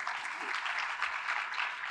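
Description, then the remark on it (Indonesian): An audience at a church service claps steadily after praise and worship, giving applause to Jesus, a dense wash of many hands blending into continuous, even applause with no voices standing out over it. “Berikan tepuk tangan bagi Tuhan kita Yesus.”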